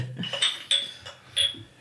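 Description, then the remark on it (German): Glasses clink together in a toast: three bright, ringing chimes spaced unevenly, each with a high sustained tone that fades before the next, over a quiet background. “Prost auch an den Rest der Gemeinde. Prost.”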